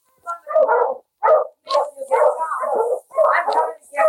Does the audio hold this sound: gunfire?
no